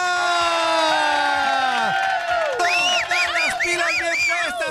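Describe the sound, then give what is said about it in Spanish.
A loud, continuous burst of crowd cheering, with many voices whooping and shouting in rising and falling calls, like a stock applause-and-cheer effect filling the whole moment. “¡Aplausos!”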